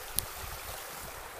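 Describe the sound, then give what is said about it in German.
Water runs steadily along a levada, a narrow irrigation channel on Madeira carrying water from the mountains down to the valley, a constant rushing hiss with no pauses, broken only by one brief click near the start. No one speaks. “Das, was du hier gerade hörst, das ist ein sogenannter Levada.”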